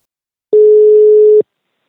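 signal or alarm, telephone ringback tone

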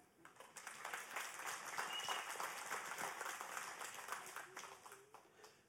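crowd, church audience applause

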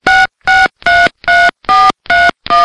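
signal or alarm, telephone keypad dialing tones

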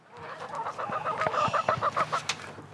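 animal, chickens clucking

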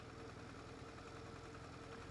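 vehicle, car engine idling nearby

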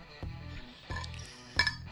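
household object, ice cubes clinking

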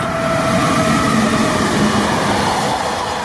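vehicle, train passing on rails

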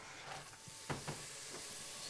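food or drink, onions sizzling

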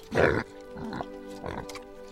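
animal, pig oinking

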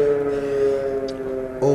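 signal or alarm, air raid sirens wailing

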